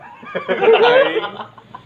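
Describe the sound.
A person imitates a chicken clucking, a short burst of throaty, rising clucks lasting about a second, moderately loud.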